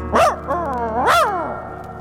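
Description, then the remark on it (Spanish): A dog barks twice, loud, each bark sliding into a drawn-out, whiny howl with a brief pause between them. No one speaks. “En eso llega un perro”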